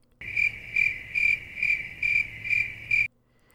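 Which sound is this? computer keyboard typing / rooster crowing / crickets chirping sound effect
crickets chirping sound effect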